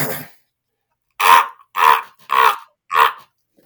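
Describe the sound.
A person imitates a raven with four harsh, throaty croaks, evenly spaced and loud, each a short rasping burst, after a brief breathy sound at the start.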